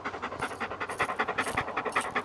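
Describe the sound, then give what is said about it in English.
A very large dog pants heavily and steadily, quick rhythmic breaths repeating throughout with no voices present. “Holy shit, that's the biggest fucking dog I've ever seen in my life.”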